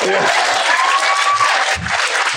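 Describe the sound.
An audience applauds with dense, steady clapping that fills the whole moment, while a few voices cheer and a thin whistle-like tone rises briefly through the noise.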